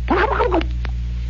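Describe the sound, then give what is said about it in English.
A man's voice does a quick, warbling imitation of a turkey gobble, one burst of about half a second with rapidly wavering pitch, fairly loud, followed by a faint click and low background hum. “That is why you you know how turkeys go.”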